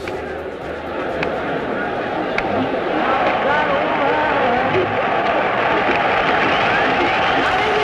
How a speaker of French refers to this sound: On entend évidemment la foule qui couvre la voix